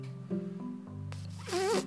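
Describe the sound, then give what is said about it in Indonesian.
A voice imitates a zipper being pulled, made with closed lips by drawing air in through them, a sharp inward-sucked rasp that rises and wavers, following a low hummed beatbox pattern, clear. “kayak tarik angin tuh tapi terserah kalian mau dari kanan mau dari kiri mau dari tengah gitu tuh tuh namanya zipper dari kalau gua dapetnya dari kiri gua tarik anginnya kalian napas di bibir napas aja biasa cuma bibir kalian kayak dikesetin gitu”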